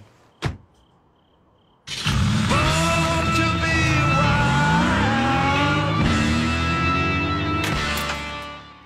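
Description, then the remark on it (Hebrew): After a sharp click and a quiet pause, a car engine roars in loud, its pitch climbing and dipping through several revs before holding steady to the end; from a Mercedes commercial aired during the 2017 American Super Bowl. “זה למשל היה מפרסומת של חברת מרצדס ששודרה בסופרבול האמריקאי בשנת 2017.”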